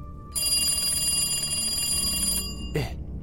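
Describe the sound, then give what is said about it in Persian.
An old-style telephone bell rings loudly and continuously for about two seconds, a bright metallic jangle that cuts off abruptly, followed by a short rattling clunk over a low background hum. “که یهو تلفن زنگ خورد”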